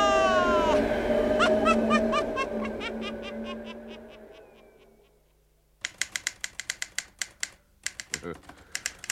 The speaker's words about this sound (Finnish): tosi mukava kuunnella, miten sukkelasti nakutat sillä koneella